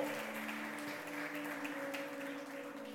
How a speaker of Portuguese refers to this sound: Pode aplaudir ao Senhor, Ele é bom.